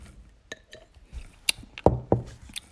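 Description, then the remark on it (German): Ice cubes clink against a glass in a handful of sharp taps, two louder knocks near the end, with quiet background noise between them and no talking. “Noch ein Eiswürfel.”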